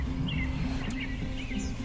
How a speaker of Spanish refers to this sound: Bueno, suenan los pajaritos, todo divino.